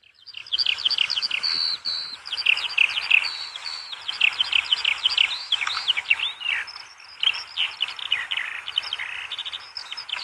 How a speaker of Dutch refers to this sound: En dan zei hij tegen mij, kom manneke, we gaan naar de veldleeuwerik luisteren. En dat is wel zo'n mooi geluid.